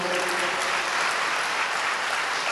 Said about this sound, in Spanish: Un aplauso para todos los voluntarios que, que fueron